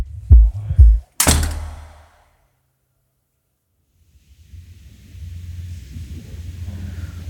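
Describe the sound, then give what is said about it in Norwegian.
A couple of dull thumps, then a prison cell door is slammed shut and locked with a loud, reverberant bang that fades into silence before a low rumbling hum rises in the background. “Nå er jeg i fengsel, og natten min starter med en dør som blir lukket og låst.”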